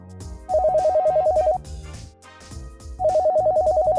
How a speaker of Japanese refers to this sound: あ、お電話です。